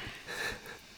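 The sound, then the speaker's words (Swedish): A can of Pripps Blå beer is cracked open with a brief, soft hiss of escaping gas, heard alone with no talking. “Nu ska jag öppna en öl här.”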